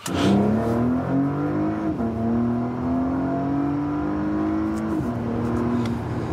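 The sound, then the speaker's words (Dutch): The V6 engine of a Porsche Panamera plug-in hybrid revs hard and climbs steadily in pitch, dropping briefly at two gear changes before pulling again. It is loud and continuous, with no talking. “Ja, als die batterijen uitgaan... Dan heb je gewoon lekker een V6.”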